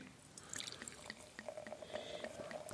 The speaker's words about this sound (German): Also der dritte ähm, gerne ins Glas gießen. Das ist halt ein äh, heller Rosé.